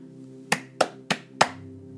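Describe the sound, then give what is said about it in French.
Four sharp hand claps in a steady, slightly uneven rhythm, each crisp and bright, over a faint low hum. Nobody speaks. “Quelque chose est créé, les applaudissements.”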